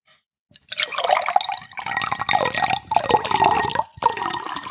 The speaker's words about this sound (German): Ich muss jetzt noch ein bisschen Wasser einschenken.